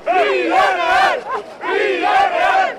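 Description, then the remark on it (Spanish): A large crowd of football fans, euphoric at beating Bayern Munich, chants "Sí se puede!" and cheers loudly in unison, two sustained roaring phrases separated by a brief dip, the many voices blending into a dense, euphoric wall of sound. “Y por eso hoy, pues los aficionados estaban eufóricos de ganar al todopoderoso Bayern de Múnich.”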